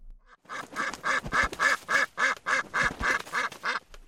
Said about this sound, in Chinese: 突然，一只白色的鸭子扑棱着翅膀跑了过来。